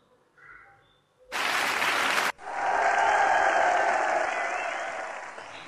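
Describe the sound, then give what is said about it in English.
A crowd bursts into applause, a short loud round that cuts off, then a second, fuller wave of steady clapping that carries on and slowly tapers toward the end. “That's enough for 100 clapping.”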